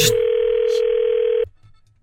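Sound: telephone dial tone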